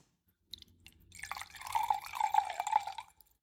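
Liquid pours from a screw-cap bottle, starting with a few brief clicks and bubbly glugs that swell into a steady, gurgling stream with a rising tone before it tapers off. It is fairly quiet, with no talking.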